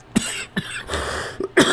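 A person coughs several times in quick succession, fairly loud, with short raspy bursts and brief pauses between them, and no talking.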